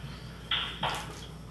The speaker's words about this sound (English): Fizz- Fizzy water. Wow. Goddamn Poland Spring. Helen Spring. It's in a can.